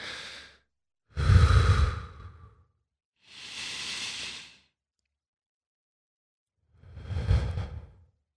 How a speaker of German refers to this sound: Das machst du einfach in dem Moment und wirst merken, wie die Atmung tiefer wird und nicht mehr so flach ist und du einfach ruhiger wirst und entspannter wirst.